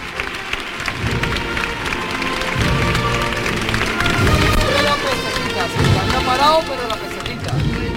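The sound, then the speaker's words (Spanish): A crowd applauds steadily for several seconds as the image of the Señor de la Salud is carried out onto the street in procession, a dense crackling wash of clapping mixed with murmuring voices and a band playing the national anthem in sustained tones underneath. “Y el señor son, los aplausos.”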